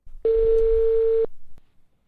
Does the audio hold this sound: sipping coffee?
no